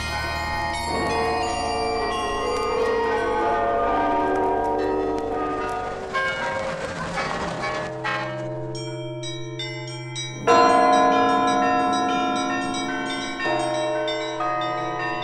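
Deep, resonant Kremlin tower clock bells, the chimes on the Spasskaya Tower in Moscow, ring out in a sustained peal, overlapping tones blending into a rich shimmer, with a fresh loud strike around ten seconds in and long ringing decays. No voices.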